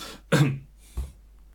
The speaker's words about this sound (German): Hust, Hust, genau. Genau, Hust, Hust.